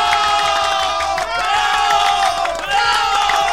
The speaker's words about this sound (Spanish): ya siendo el tercer programa, el tercer programa de esta temporada 2023. Aplausos.